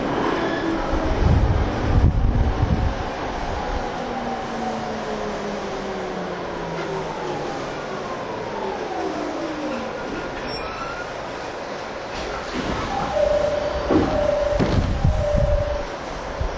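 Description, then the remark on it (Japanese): A Rinkai Line commuter train about to arrive at Osaki station rumbles steadily along the rails, with low rolling noise, gliding whine tones and sharp wheel squeals rising over the drone. No one speaks. “今日も臨海線ご利用いただきまして、えーえー、おりましたまもなく大崎到着しますお出口右側です大崎の先は JR 埼京線ありますご足のご利用にお気をつけください”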